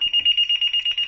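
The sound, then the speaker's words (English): A phone alarm set for a work call goes off with a fast, steady run of high-pitched electronic beeps, about eight quick pulses in a second, loud, with no talking over it. “Ironically enough, that was that was my alarm for a work call and I'm not even at work.”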